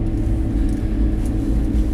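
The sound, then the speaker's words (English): A steady low engine and road rumble from inside a moving car, constant and fairly loud, with no voices and no breaks in the drone. “Coming to you from the car, as always, as we do every day, every week.”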